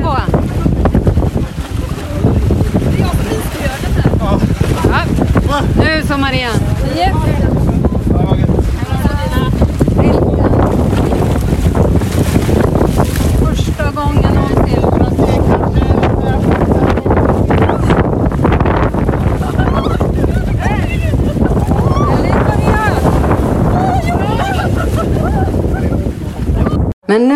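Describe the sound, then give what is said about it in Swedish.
Steady, loud rush of wind buffeting the microphone over churning winter sea water with many waves surging back and forth, where people take a winter swim, continuous for the whole stretch, with faint voices now and then beneath the roar. “Det var väldigt mycket vågor så det böljade väldigt friskt fram och tillbaka.”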